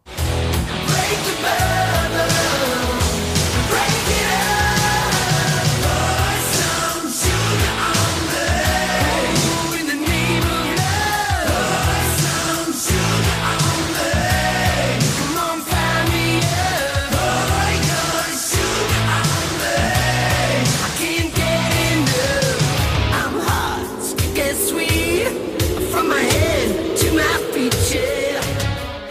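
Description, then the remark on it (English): A loud 1980s-style rock anthem plays throughout, with pounding steady drums, thick distorted guitars and energetic shouted vocals filling the whole stretch at full volume. “Before I go into the history of this song, I want to point out that if you listen closely,”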